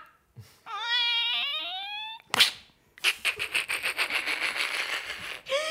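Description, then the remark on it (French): A cat gives a long, wavering yowl, then a sharp harsh burst follows, and a rapid series of rough, scratchy pulses continues to the end. Fairly loud, with no talking. “Ici, nous avons eu un chat.”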